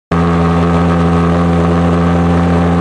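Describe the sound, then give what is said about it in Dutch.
A pulsejet engine runs with a loud, steady, rasping drone that starts abruptly and holds at an unchanging low buzzing pitch with strong harmonics throughout, without any talking. “Om het verschil duidelijk te maken, vandaag dus de pulschat, maar niet te lang, want het geluid is best irritant”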